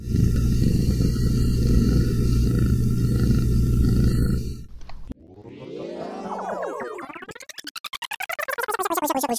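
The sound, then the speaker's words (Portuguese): A domestic cat, just picked up after meowing outside, purring into the microphone, a loud, steady low rumble for about five seconds, then giving way to sweeping, pulsing electronic tones. “Minha gatinha tava miando lá fora, eu fiquei com dó e acabei pegando ela.”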